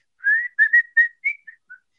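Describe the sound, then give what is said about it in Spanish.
A person whistles a short melodic phrase of about seven notes: a long opening tone, then quick rising and falling notes that trail off softer. Clear, with no talking. “Y él sí, era serio eso de, Da silbidito, ¿no?”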